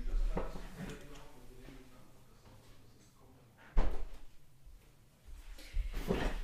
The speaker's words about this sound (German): Uh, ich mach mal kurz die Tür zu.